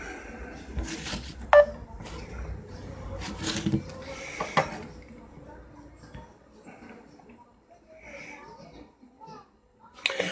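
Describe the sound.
A phone number is dialed to call a caller on a live show: a series of short, evenly spaced touch-tone beeps over a busy background of faint voices and clatter.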